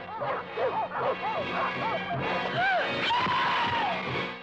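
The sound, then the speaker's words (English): Several large, ferocious guard dogs behind barbed wire bark aggressively and repeatedly, overlapping in a dense, continuous chorus of sharp, loud barks with some higher yelps, filling the whole stretch. “Who and what do these ferocious dogs guard?”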